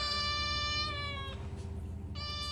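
A cat meows softly, first one long drawn-out cry and then a second meow starting after a short pause, over a low background rumble with no one speaking.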